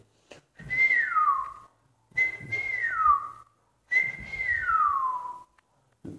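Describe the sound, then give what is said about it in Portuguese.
Three separate whistled phrases, each a sliding, descending tune imitating birdsong, with short pauses between them. Clear, with no talking. “E os passarinhos lhe levando e assobiando com ele.”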